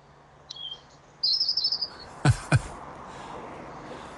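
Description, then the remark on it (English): Birds chirp clearly against a quiet outdoor hiss: a short call, then a rapid twittering phrase, followed by two sharp knocks or thuds. No one speaks. “I can hear the birds in the background, but I can't hear Fintan.”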